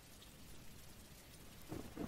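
Steady, soft rain hisses throughout, a quiet, even wash of falling drops, with a couple of slightly louder low thumps near the end. No voices.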